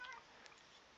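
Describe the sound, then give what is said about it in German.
A single short, quiet meow from a pet cat at the very start, high and slightly tonal, followed by faint steady background hiss with no talking. “und das war meine Katze.”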